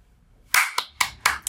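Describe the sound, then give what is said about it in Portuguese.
A few sharp hand claps, four distinct bursts at a steady, slightly uneven rhythm, bright and fairly loud with nothing else sounding around them. “Aplaude, aplaude, é sobre lealdade e dignidade que estamos falando aqui.”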